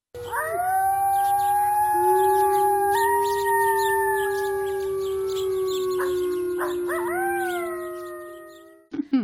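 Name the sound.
wolf howling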